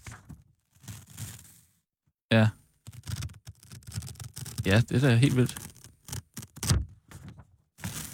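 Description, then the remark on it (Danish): Scratchy rasping of a piece of paper being run over stubbly, wiry facial hair on a person's face, coming in several short, uneven bursts, with people talking and reacting in between. “jeg kører et stykke papir over mit ansigt.”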